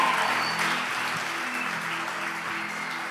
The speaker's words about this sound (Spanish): Si usted recibió, de un fuerte aplauso al Señor y los que están en casa. ¿Cuánto les dan un aplauso al grupo de alabanza que tenemos? Amén.